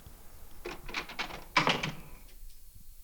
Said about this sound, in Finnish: Pitääpäs mennä avaamaan ovi.